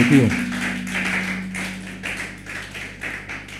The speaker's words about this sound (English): Clap for yourselves in Jesus' name.